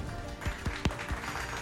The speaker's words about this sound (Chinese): 大家给他掌声鼓励哦。